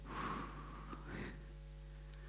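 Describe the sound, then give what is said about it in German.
A sharp, audible intake of breath, as someone does when badly frightened, then a softer breathy exhale let out slowly, demonstrated as a breathing exercise, with no talking. “dann atmet er langsam aus.”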